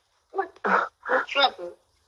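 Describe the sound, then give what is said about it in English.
A tiny pet dog named Minnie whines in four short, pitched bursts, each rising and falling, with brief gaps between them and no other sounds around. “Say hello. Say hello. Oh, you did.”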